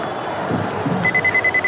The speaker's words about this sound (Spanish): Rusty teclea un número en un móvil mientras avanza por el casino sin disfraz alguno. El teléfono de Tess suena en un bolsillo.